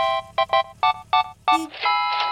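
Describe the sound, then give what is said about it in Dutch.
A loud electronic chime from an LED speed display sign, triggered as a passing car keeps to the speed limit, plays a quick run of bright, evenly spaced beeping notes, then holds a longer sustained tone. A low, steady hum runs underneath, like traffic. “Een ledscherm dat een bedrag in de pot gooit op het moment dat een passerende automobilist zich simpelweg aan de snelheidslimiet houdt.”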